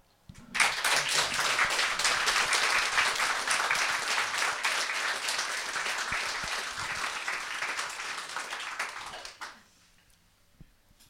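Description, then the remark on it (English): An audience breaks into sustained applause for Mr. Kurkov, a dense wash of many hands clapping at steady loudness for about nine seconds before tapering off into quiet. “I think you deserve a big applaud.”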